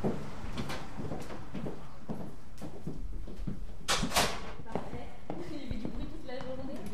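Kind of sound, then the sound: household object, door being opened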